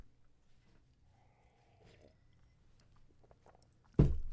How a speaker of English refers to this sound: Ranting is so thirst inducing. I need another sip.